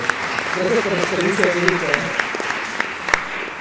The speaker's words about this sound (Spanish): Y, pues, aplausos, aplausos.